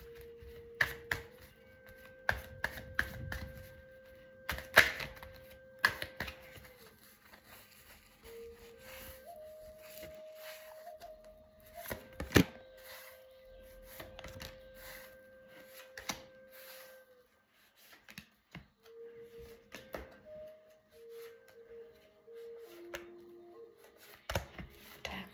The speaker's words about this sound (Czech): A já už se dívám na vaši fotku, míchám u toho karty a my se spolu podíváme, co nám Tarot poví o tomto partnerském vztahu.